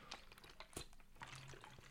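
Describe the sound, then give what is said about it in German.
Someone takes a quiet sip of water, with soft slurping and swallowing sounds and faint liquid movement, and no talking. “Ich muss mal vorher erstmal einen Schluck Wasser trinken”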